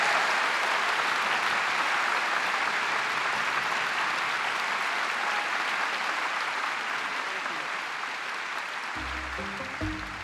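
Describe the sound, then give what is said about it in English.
Sustained audience applause at a steady, dense level for about ten seconds, many hands clapping at once, with a faint low musical tone emerging near the end, as the audience thanks Australia's first female Prime Minister, Julia Gillard, after an evening talk. “please thank Australia's first female Prime Minister, Julie Gillard”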